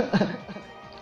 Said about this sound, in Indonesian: Aduh, gue batuk kan, gue jadi bersin tuh.